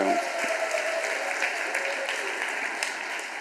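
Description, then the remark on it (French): Audience applause for families chosen to represent Israel in a group activity about rebuilding the wall of Jerusalem, a steady dense patter of many hands clapping at an even loudness, with faint crowd murmur mixed in. “On les applaudit.”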